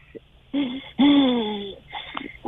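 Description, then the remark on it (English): A voice imitates laboured, wheezing breathing: two strained, whistly drawn breaths, the second longer and louder, then a softer raspy breath trailing off. “it was, it was laboured, um, you know, and it it was worrying.”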